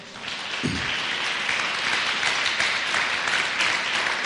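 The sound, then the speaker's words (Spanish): A church audience breaks into sustained applause for the Lord, a dense wash of many hands clapping at steady loudness for several seconds, with a brief low voice-like sound early on. “Mandémosle un aplauso a nuestro Señor.”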